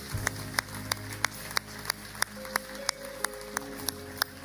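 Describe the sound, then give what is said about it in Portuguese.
A church audience claps in a steady, even rhythm, about three claps a second, fairly quietly, over soft sustained musical tones and a low hum, applauding people who have just decided to follow Jesus. “Igreja, podemos dar uma grande salva de palmas a todas estas pessoas que tomaram esta decisão de seguir Jesus.”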